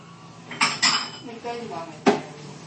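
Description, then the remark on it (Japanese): Handling of a lid being pulled off a Cup Noodle instant noodle cup after hot water was poured in: a few sharp, crinkly knocks and scrapes, with a faint voice murmuring in between. “ポタポタしか出てこないんだけどこのくらいまでやり、えー、蓋を外しよいしょ”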